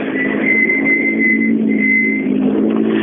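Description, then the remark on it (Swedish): A rally car engine roars steadily at high revs as the car comes to the finish at the end of a stage, a loud sustained drone with a bright whining tone holding across the whole stretch, no voices over it. “Vi får höra mycket motor på slutet.”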